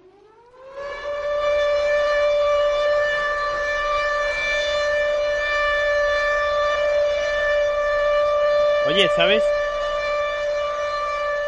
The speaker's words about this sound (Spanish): ¿Sabes que esto que estás poniendo el pitido este que están poniendo lo hemos escuchado en toda Tarragona hoy, que hemos hecho un simulacro eh, químico. Pues esto es alerta nuclear, ¿eh?